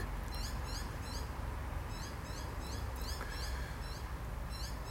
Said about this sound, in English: God, I love hearing my birds. A little baby up there right now. I'm assuming you can hear him.